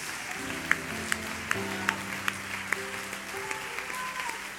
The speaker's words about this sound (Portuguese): Vamos aplaudir aquele que é o único digno de honra, glória e louvor.